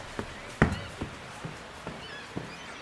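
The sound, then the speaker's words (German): Light, evenly spaced footsteps and light scratching as a little girl walks toward the back of a boat, thudding on its hollow deck: about six soft steps with one louder knock, over a faint scratchy background and no talking. “Sie wandert nach hinten, man hört leichte Kratz- und Schrittgeräusche”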